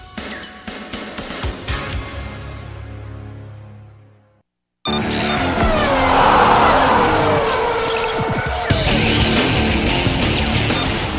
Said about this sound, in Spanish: El rugir de los motores llega a juego limpio con la Fórmula 1 y más